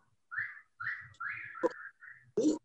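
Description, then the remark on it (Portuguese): A young man passing by outdoors in Maranguape, Brazil, whistles a short tune in several bright, warbling phrases, moderately loud, with a couple of sharp knocks mixed in and no talking. “E aí tem um rapaz que ele passa fazendo esse tipo de.”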